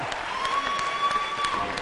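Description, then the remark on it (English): A crowd applauds the youth steadily, many hands clapping together in a dense, continuous patter at moderate loudness, with a faint sustained tone and murmured voices beneath. “let's give our youth a hand clap.”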